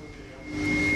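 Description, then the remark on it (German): Electrical crackling from small high-voltage flashovers on transformer insulators at a coal power plant by the Nochten open-pit mine, a dense hissing buzz with a steady tonal hum underneath, swelling louder halfway through and continuing without pause. No one speaks. “Und dieses Knistern, was man hört, sind kleine Überschläge.”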